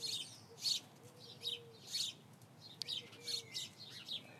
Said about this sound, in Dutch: Ik zit hier in de tuin, omringd door mussen die totaal geen probleem hebben met body positivity.